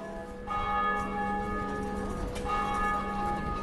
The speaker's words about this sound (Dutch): Daar gaan de touwen weer op en neer, kwinkeleren de klepels in hun bronzen omhulling loopt Brugge over van de toeschouwers.